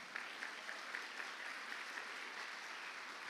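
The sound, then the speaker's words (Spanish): A crowd claps steadily for the Lord, a dense, continuous wash of many hands applauding at moderate volume, with faint rhythmic accents running through it and no one speaking. “Déselo fuerte al Señor, pues.”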